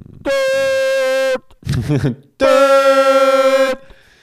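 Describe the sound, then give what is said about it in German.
A voice imitating the alarm signal horn of an AIDA cruise ship, the real signal being seven short blasts and one long: two loud, steady, buzzy blasts of about a second each, separated by a brief voiced murmur. “Eigentlich muss ich das gerade siebenmal hintereinander machen, weil das war irgendwie das Signal für. Ja, aber es war siebenmal ähm, kurz, einmal lang.”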